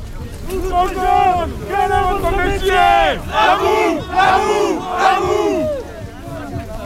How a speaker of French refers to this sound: Dans le cortège, un festival de reprise de chant est lancé à l'improviste histoire de détendre l'atmosphère et de s'occuper pendant les 7 premiers kilomètres.